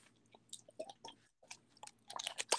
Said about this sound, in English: but i'm only chewing grapes